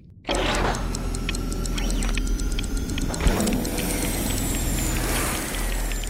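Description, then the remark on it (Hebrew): A time machine travel sound effect kicks in abruptly as the machine sets off 300 million years into the future: a steady, loud mechanical rumble with pulsing electronic tones, rising into a sweeping whine near the end. No one speaks. “תתחברי בבקשה למכונת הזמן ותני המלצה לאיזשהו עתיד עם משהו שונה בשמיים”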